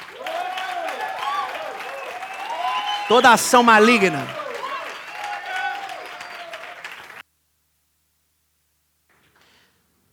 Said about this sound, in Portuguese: Dá um aplauso para espantar